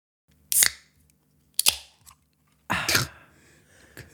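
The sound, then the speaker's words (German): An energy drink can is opened at a microphone with a couple of sharp metallic clicks, then a louder crack and a short fizzy hiss that fades. No one speaks. “Mit einem neuen Energy Drink.”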